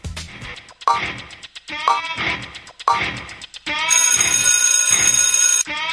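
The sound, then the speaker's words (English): A game-show countdown timer effect giving three seconds to answer a quiz question: rapid ticking in repeated short bursts, then a loud sustained buzzing tone that holds for about two seconds before cutting off. No one speaks. “Put another three seconds on the clock and go.”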